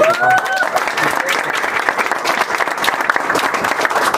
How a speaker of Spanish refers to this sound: Dale un aplauso